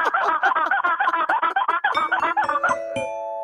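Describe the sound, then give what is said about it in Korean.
A person in a sound-imitation contest vocally imitates squeaky window wiping with rapid, rhythmic rubbery squeaks, loud, ending in a sustained high squeal. “네, 창문 닦는 소리 하 창문 닦는 소리가 과연 네. 닭소리를 이길 수 있을지 한번 들어보겠습니다.”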